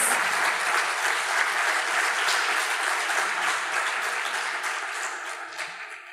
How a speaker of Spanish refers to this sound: Dale un aplauso al Rey de Reyes, al Señor de Señores.